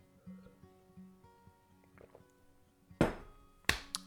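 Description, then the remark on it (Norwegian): A small sip of water: faint soft handling sounds, then a brief slurp and a couple of short, sharp gulping bursts toward the end, with no talking. “Og da skal jeg bare ta meg en liten sup med vann først.”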